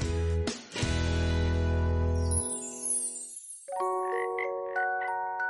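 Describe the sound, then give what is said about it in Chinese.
A frog gives a short croak and then a long, deep, buzzing croak, followed by a light, tinkling chime melody of a few bright notes. “它是一只青蛙，每天都穿着短裤，还在脖子上打了一个漂亮的领结。”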